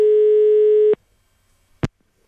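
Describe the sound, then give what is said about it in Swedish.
A telephone ringing tone sounds once, a steady buzzing beep lasting about a second, followed by silence and a brief click as the line picks up, for a call about a watch placed from a Klockmäster watch shop in Sölvesborg. “Och plötsligt så ringer det ifrån en annan klockmästerbutik, de har klockan.”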